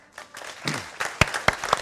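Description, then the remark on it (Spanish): A brief burst of applause from a small group, scattered claps building up, with a few sharp, louder claps standing out toward the end before it fades. “Gracias, man. Un aplauso”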